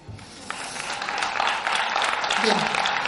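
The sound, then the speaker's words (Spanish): A crowd claps steadily for a few seconds, a dense rush of many hands that holds at an even, moderate loudness, with a faint murmur of voices mixed in. “Eh, sirva este aplauso para todos nuestros progenitores en nuestra línea de descendencia, ¿no?”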